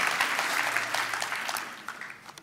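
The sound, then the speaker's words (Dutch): An audience applauds to thank the band, a steady, dense wash of many hands clapping that gradually thins and softens toward the end, with a few scattered louder claps near the finish. “Zullen we de band bedanken? Zullen ze een applaus geven?”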